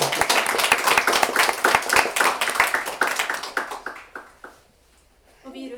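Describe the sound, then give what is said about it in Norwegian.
An audience claps in a dense burst of sharp, overlapping hand claps that gradually thins out to a few scattered claps and fades to near silence, followed by a faint voice. “Ja, kan klappe.”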